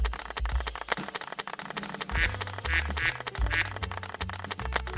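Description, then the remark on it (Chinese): A canned applause sound effect played by pressing a button several times: dense, continuous clapping runs steadily through the whole stretch without talk, mixed with a few honking, quack-like tones and low bass notes. “我是不是按太多下了？他拍手拍不完哎、欸。”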